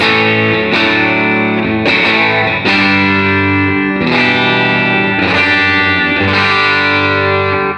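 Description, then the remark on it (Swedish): Overdriven electric guitar through a Wampler Tumnus Germanium overdrive pedal, loud, strumming sustained chords about every second with a gritty, ringing tone, played alone without any talking. “I veckans pryl är det världspremiär på Wampler Tumnus Germanium.”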